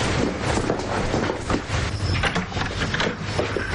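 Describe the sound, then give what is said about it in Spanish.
A door moves with a steady, fairly loud rumbling and scraping noise that carries on for several seconds, broken by a few faint knocks and clicks. No one speaks. “Al oír una puerta se marchan y entran en la habitación de la chica.”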